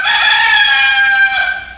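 A rooster crows once, loud, a bright, strained cock-a-doodle-doo that holds for nearly two seconds and dips in pitch near the end, with no voices around it.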